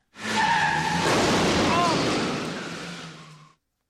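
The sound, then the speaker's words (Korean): A loud, sustained screech of car tires skidding lasts about three seconds, with a grinding, noisy roar underneath and a wavering high squeal before it fades out abruptly, as a driver dozing at the wheel crashes into an oncoming car. “상목이 졸음운전을 하다 사고를 내고 맞은편 승용차의 운전자는 사망을 하게 됩니다.”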